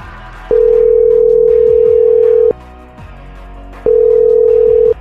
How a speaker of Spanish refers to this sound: Vamos a marcarle a la mamá.